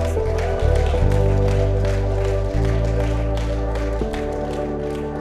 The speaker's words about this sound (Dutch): Laten we Jezus een applaus geven met z'n allen. Voor wat hij voor jou deed.